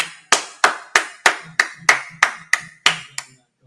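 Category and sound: human body sound, hands clapping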